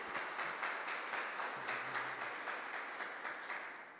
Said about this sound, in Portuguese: E se você crê nisso, aplauda ao Senhor Jesus Cristo bem alto.